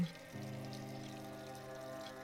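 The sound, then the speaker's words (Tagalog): A faucet opens and water runs steadily into a sink, a soft continuous flow with a faint resonant hum, fairly quiet and without any voices. “Huminto siya dun sa may lababo at binuksan niya yung gripo.”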